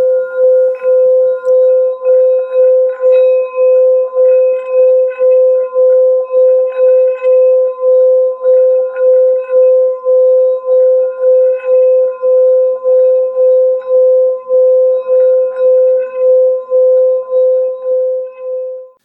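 A resonating bowl with water sings a steady, loud tone with bright overtones, its volume pulsing in a quick, even wobble for the whole stretch before fading out at the end.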